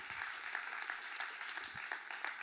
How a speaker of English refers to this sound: And the ones that are clapping their hands, they know where God has taken them out from.